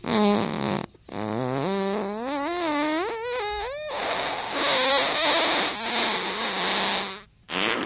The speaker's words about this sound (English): I think he's going to be fine. Just he's just going to be farting a lot.